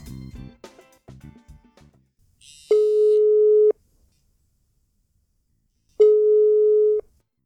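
A telephone busy tone sounds twice, each steady, loud beep lasting about a second with a long silent gap between, preceded by a brief burst of clattering noise.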